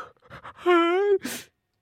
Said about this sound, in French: Vous avez baillé Bon ben, c'est que vous n'êtes pas en empathie avec moi.